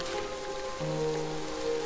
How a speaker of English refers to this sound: just a point of reference for you guys because it's raining.